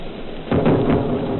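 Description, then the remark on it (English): Two anti-aircraft shell bursts during an air raid over London, heard from a rooftop: a deep, rumbling boom erupts suddenly after a quiet background hiss, with a second heavy burst rolling close behind it, loud and echoing. “Now you'll hear two bursts a little nearer in a moment.”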